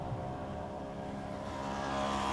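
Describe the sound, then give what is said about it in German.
A car engine roars steadily and grows slightly louder as the car speeds along, with no voices over the sound. A woman runs straight into the path of the car. “Sie ist direkt in den Wagen hineingelaufen.”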